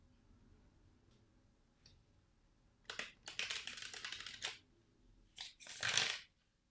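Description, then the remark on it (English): A traditional Rider Waite Smith tarot deck being shuffled before a card is drawn: a dense run of crisp riffling and flicking for over a second, then a short snap and one final fuller riffle, with no voices. “I am using a traditional Rider Waite Smith deck today and I'm going to shuffle and draw a card.”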